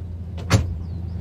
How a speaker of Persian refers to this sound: چند دقیقه بعد یک ماشین دیگر ایستاد